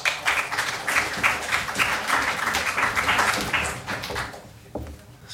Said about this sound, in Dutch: Een hartelijk applaus.